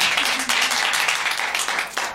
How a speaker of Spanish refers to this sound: No, pues yo digo que sí, un aplauso, ¿no? Para que pase el novio.